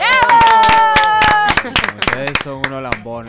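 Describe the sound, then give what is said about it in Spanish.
An audience claps in a quick, steady burst of sharp hand claps, loud throughout, with voices calling out and talking over it as the clapping thins toward the end. “no le aplaudan nada.”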